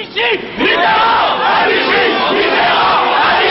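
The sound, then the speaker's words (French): An angry audience shouts and jeers continuously, many voices overlapping in a loud, sustained roar with sharp whistles and rising yells cutting through. “Réaction de Robert Badinter à ses cris, la colère.”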